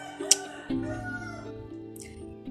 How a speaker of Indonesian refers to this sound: jadi gue nih ya nggak tahu ayam mana yang berkokok